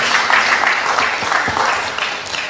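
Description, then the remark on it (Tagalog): An audience claps for the Lord after a prayer, in sustained, dense applause, many hands producing a loud, steady wash of crisp claps that fades slightly toward the end, with no talking over it. “Palakpak po sa Panginoon.”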